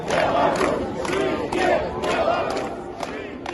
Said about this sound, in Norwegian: Tusenvis av mennesker marsjerte gatelangs i Minsk mens de ropte 'Skyve Belarus', 'Leve Hviterussland'.